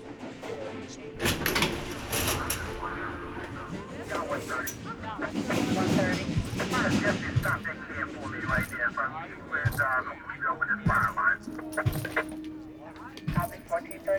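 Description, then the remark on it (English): A subway train rumbles along the rails with sharp rhythmic clacks and a steady whining hum, fairly loud, while muffled voices murmur in the background. “After more than a year, riding the subway for the first time was a nerve wracking experience.”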